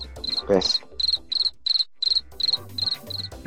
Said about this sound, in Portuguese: É, agora é, é, o espaço aí, deixa um, um espaço pro JP colocar os grilos, que a minha piada ninguém deu risada aí.